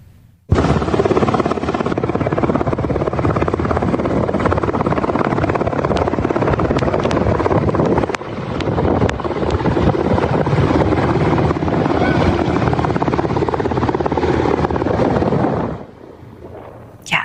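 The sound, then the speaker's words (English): A rescue helicopter hovers overhead at a flooded home in Kentucky, hoisting residents off the roof in a Wolfe County Swift Water Techs rescue, with a loud, steady rotor roar and wind buffeting, holding constant for about fifteen seconds before dropping away abruptly near the end. “A home with five residents was so flooded, the only escape was by helicopter off of the roof.”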